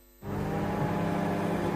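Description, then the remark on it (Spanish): After a brief quiet moment, a car engine suddenly roars to life and keeps running loud, a steady rumbling drone with a faint whir on top. “La energía que necesita tu coche para llevarte a ver a tu madre.”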